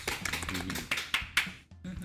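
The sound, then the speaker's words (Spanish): A burst of applause, requested by "our dear mother" during a sermon on Psalm 150, with dense, rapid hand claps and a few sharper, louder claps standing out, ending abruptly; voices murmur faintly underneath. “Nuestra querida madre acaba de pedir un aplauso.”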